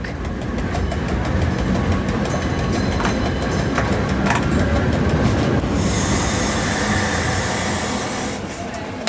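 A yellow electric railcar built in 1911, of the nostalgic Bernina Railway (part of the Rhaetian Railway), rumbles steadily along the tracks on a trip over the Bernina Pass, loud, with rhythmic wheel clatter and a rise of bright metallic hiss and squeal from the rails toward the end.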